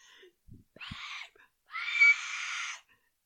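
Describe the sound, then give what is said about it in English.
Someone attempts a scream but manages only two breathy, raspy bursts, a short one followed by a longer strained push, thin and weak rather than full-voiced, with no other sound. “like it's ridiculous literally, if somebody came to kidnap me in the middle of the night, I can't scream. I would be like,”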